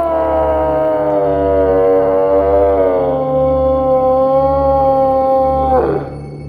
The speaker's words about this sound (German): Zehn Schritte vor mir aber stößt ein riesiger Vierzehnender von Nebelschleiern umwallt seinen Liebesschrei gegen den Himmel.